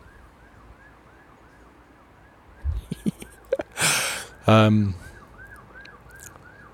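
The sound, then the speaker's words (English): A faint emergency siren wails steadily outdoors on a grey, wet Monday evening, its rising and falling tone continuing throughout while a person laughs and murmurs briefly over it. “I don't know if you can hear that siren in the background.”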